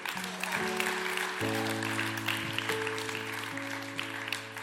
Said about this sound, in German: Ja, Applaus